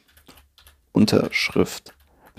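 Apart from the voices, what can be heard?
computer keyboard keys clicking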